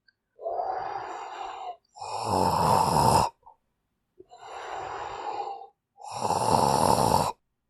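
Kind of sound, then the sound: human body sound, snoring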